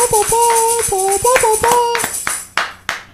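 Applause: a run of sharp claps over a steady, wavering tone like a whistle or cheer, thinning out after two seconds into a few scattered, separate claps.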